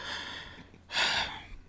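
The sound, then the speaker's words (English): A voice imitates someone breathing hard: a soft breathy inhale, then one loud, sharp gasp lasting about half a second, trailing off quickly. “started breathing hard.”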